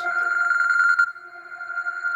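A telephone rings with a fast, buzzing trill for about a second, then settles into a steady, high electronic tone that holds to the end, with no voices.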